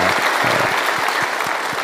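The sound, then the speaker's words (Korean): An audience at an Easter church service applauds warmly to welcome invited guests, a steady, dense patter of many hands clapping at once, loud and continuous throughout with no voices rising above it. “우리 그분들 위해서 뜨거운 격려와 사랑의 박수 올려드립니다.”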